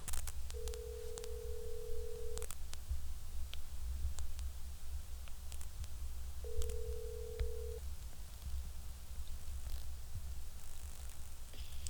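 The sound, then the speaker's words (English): Two long steady ringback tones of an outgoing phone call to a friend, each lasting about two seconds with a pause between, heard over a low rumbling background with faint clicks and no talking. “Let's phone a friend, aka the bitch that's the hoe that's dead to me, and let's find out who my sister hates.”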